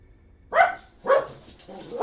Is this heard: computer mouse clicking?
no